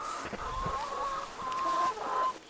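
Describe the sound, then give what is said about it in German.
Several chickens of mixed breeds, crosses of laying hybrids and old breeds, cluck and murmur in a coop built from an old car trailer, a steady stream of overlapping mid-pitched calls with a few drawn-out tones, moderately loud and with no one talking. “hat aus einem alten Autoanhänger einen Hühnerstall gebaut, damit die Tiere in der Nacht vor Füchsen, Mardern und Raubvögeln geschützt sind.”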